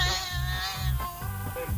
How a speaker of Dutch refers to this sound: die kat die eh, zit me achterna, hè? Ik hoor het.